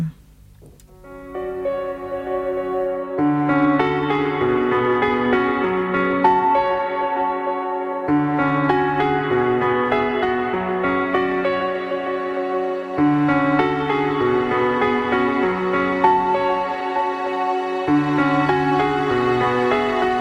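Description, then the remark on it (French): A song plays steadily at a moderate level: sustained, harmonically rich melodic tones over a low bass line, moving in repeating phrases of about five seconds with brief breaks in the bass. “Eh ben on s'écoute une autre musique.”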